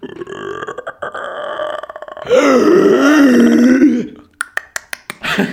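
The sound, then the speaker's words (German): Creepy horror sound effects played in the background: eerie droning tones give way to a loud, drawn-out, wavering groan, followed by a scatter of sharp knocks and clicks. No one speaks. “Äh, für unsere Podcast-HörerInnen werde ich jetzt äh, Gruselgeräusche im Hintergrund ähm, einspielen”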